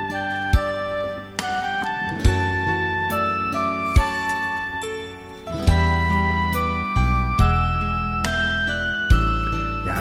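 A loud instrumental backing track with steady beats, bright synth chimes and sustained harmonic tones, playing on its own with no voices, like a karaoke intro building toward a song.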